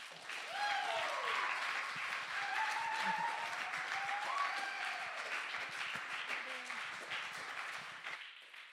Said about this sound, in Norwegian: Du, eh, nå er det rett og slett tida for å klappe helt sykt mye for disse, for nå er vi ferdig.